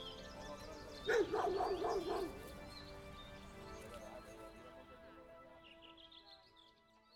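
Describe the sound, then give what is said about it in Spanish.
Dogs running in a park let out a short, lively burst of several happy, excited barks, then go quiet, leaving soft outdoor ambience with faint birds chirping toward the end. “Estela y Darcy seguían corriendo en el parque, ladrando de felicidad”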